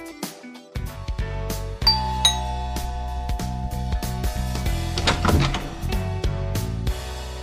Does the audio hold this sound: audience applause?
no